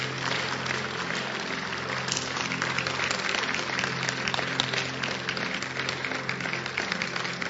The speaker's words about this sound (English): Clap for Jesus.